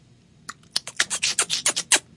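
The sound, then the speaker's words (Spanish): A quick run of about ten sharp, dry tongue clicks, the kind used to urge a horse on, coming in a fairly steady rhythm and growing denser and louder toward the end. “Eso es un chasquido del origen de la raza humana.”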